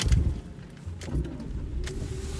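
Low engine rumble and road noise from inside a moving car, steady throughout, with a faint rising hum and a few brief clicks or thumps.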